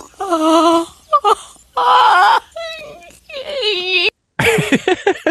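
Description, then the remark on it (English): A woman's loud, strained crying wail comes in several uneven bursts, guttural and almost braying like a donkey, with short gaps and gasping breaks between the sobs, intense. “Her cry, just her cry is so good, it's, brilliant, uh, and it gets more guttural, yeah, uh, and more.”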